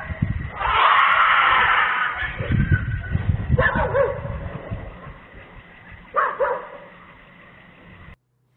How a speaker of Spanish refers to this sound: Pues ahí está, ¿no? Se escucha ahí un grito. Y se, ah, se alcanzó a oír uno de los perros llorando. Así como, Sí, pero pues, o sea, para que la gente entienda más o menos, es las cámaras que están grabando el Popocatépetl en todo tiempo.